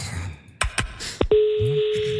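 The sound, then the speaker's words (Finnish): A few quick clicks and beeps of a phone being dialed to call a helpline for holidaymakers, then a steady electronic tone holds over the line, with faint low murmuring underneath. “No kysyt, soitetaan, katsotaan. Toivottavasti siellä vastat.”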